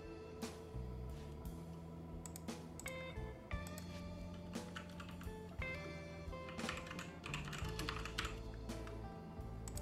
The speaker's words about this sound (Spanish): Se escuchan todas las letras, todas las teclas de su super teclado mecánico. No. Se escuchan a 30 kilómetros de, distancia.